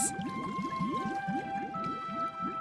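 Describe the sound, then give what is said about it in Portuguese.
Deep, rapid whale calls rise in repeated upward sweeps, layered over steady high tonal hums, a dense underwater chorus that carries on continuously with no voices. “No oceano havia um grande mundo na profundidade que ninguém conhecia. Baleias grandes,”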